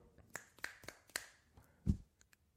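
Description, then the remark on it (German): Several crisp finger snaps, about four, crack out in quick, slightly uneven succession, each bright and sharp, followed by a dull low thump and a couple of faint ticks. “ich ich schnipp mal mit dem Finger.”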